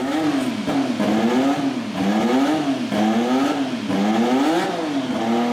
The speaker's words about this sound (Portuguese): Fora o ronco dos motores, né? O ronco da, daquele turbo, mexe com o nosso coração. Se você não ouviu, escuta aí. A gente vai colocar o áudio só para você ter essa noção.